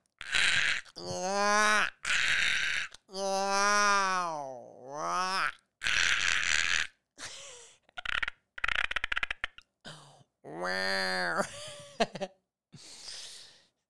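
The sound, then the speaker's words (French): A person vocally imitates his baby daughter's crying as a dinosaur-like roar: a series of loud, strained groaning wails with swooping pitch, broken by raspy, breathy bursts and short pauses. “ma fille Annabelle, pleure comme un dinosaure qui est en train de péter le cul à un chat”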